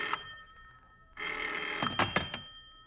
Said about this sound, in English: It seems like hours later when the phone bell cut through the darkness like a knife.